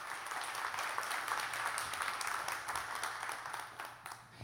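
A large crowd applauds steadily to welcome a speaker, a dense wash of many hands clapping at once that holds at an even level throughout, with no voices rising above it.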